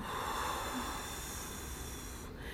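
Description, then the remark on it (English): A long, steady, breathy exhale rushes out for a couple of seconds during a breathing exercise, airy, hissing and moderately loud, with no talking over it. “And we're breathing in and we're breathing out.”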